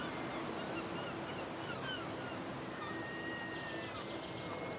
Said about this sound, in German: Ein neuer Tag ist angebrochen. In der Ferne zwitschern leise die Vögel und auch die für die Hansestadt typischen Möwen sind wieder erwacht.